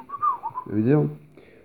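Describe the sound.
A short whistled pop song melody rises and falls over a few notes, fairly clear, then gives way to a brief voiced, hummed-sounding tone.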